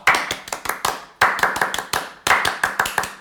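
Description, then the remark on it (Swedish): Rhythmic French-style applause welcoming new sponsor Lustens Oas: three bursts of sharp, crisp hand claps, each burst a quick run of about five evenly spaced claps, loud and bright, with no voices. “Och vi då i Kosfamiljen eh, lägger ju självklart då en fransk applåd och säger välkomna till Känslor och sånt Lustens Oas.”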